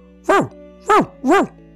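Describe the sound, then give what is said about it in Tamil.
A human voice mimics a dog barking: three loud, bark-like yelps with rising-then-falling pitch, the last two coming quicker than the first, with no other talking. “அப்படின்னு குலைக்க ஆரம்பிச்சிடுச்சு”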